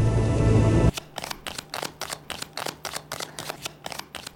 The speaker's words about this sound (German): Die Tarotkarten werden gemischt. Das Geräusch der Erkenntnis?